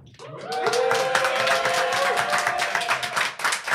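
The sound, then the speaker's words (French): A live crowd applauds loudly and steadily for several seconds, dense clapping mixed with cheers and a sustained whoop rising above the noise, the whole audience close and enthusiastic. “Est-ce que vous pouvez faire du bruit, les amis”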